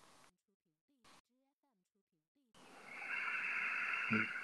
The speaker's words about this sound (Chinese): 听到我的呼吸声吗？啊，听听自己的呼吸声。通过去听自己的呼吸声，把你的注意力拉回到自己的身上。